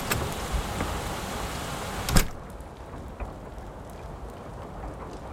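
Steady rain hisses and patters throughout, heavier at first, with a brief sharp crack partway through before the downpour settles into a softer wash. No one speaks.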